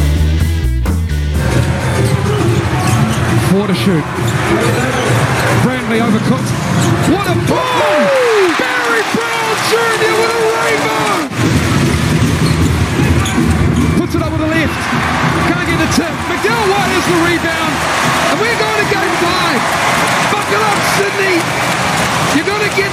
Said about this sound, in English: That was the sound of a record crowd at Spark Arena. Over 9,700 fans witnessing the great turnaround by the New Zealand Breakers in Game 4 of the